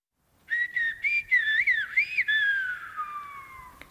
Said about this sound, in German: Für genau diesen Zweck gibt es Pfeifsprachen in den Pyrenäen oder in der Türkei. Die berühmteste heißt Silbo und kommt von der kanarischen Insel La Gomera.